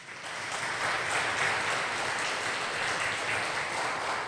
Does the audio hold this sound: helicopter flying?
no